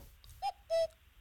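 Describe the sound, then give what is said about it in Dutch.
A doorbell sounds a two-note cuckoo call, a short higher tone followed by a longer, slightly lower one, clear against a quiet background with a low hum. “dit is dus onze deurbel.”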